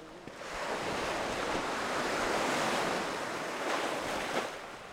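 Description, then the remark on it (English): Ocean surf crashes and washes steadily against large boulders fitted together as an armored shoreline structure, a dense continuous roar with a couple of louder surges, with some wind buffeting the microphone and no voices. “when the waves hit this, these rocks, instead of the rocks absorbing that force, it seems to direct that force backward into the unco- next oncoming wave.”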